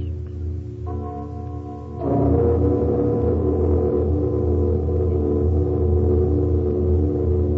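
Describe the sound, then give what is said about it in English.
A great suspended bell, cast of bronze with gold, brass, silver and iron wedded together, is struck, its deep, resonant tone swelling with a second, louder stroke and then ringing on in a long, humming sustain with no voices. “Let the bell be struck. It has a mighty voice, though tongueless.”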